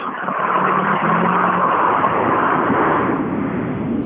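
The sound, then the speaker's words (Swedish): Another car heads down the road, its engine roaring steadily and loudly for the whole stretch, with a rough, noisy rush and a low droning hum near the start. Nobody speaks. “Ytterligare en bil på väg ner helt omöjligt att se vad det kan vara.”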